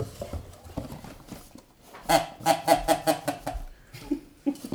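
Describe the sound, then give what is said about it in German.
A duck sound generator plays a run of about five quick, nasal duck quacks in a rhythmic burst, followed after a short pause by two more scattered quacks, with quieter murmuring before them. “Wir haben vorhin festgestellt, wir haben einen, einen Entensoundgenerator.”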